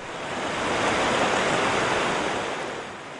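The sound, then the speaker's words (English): A steady rush of surf swells and then eases off, a broad hissing wash of breaking waves with no voices, at the three-mile-wide mouth of the Columbia River where it spills into the Pacific Ocean between Oregon and Washington. “This is the mouth of the Columbia River. It's three miles wide right here, where the river spills into the Pacific Ocean between the states of Oregon and Washington.”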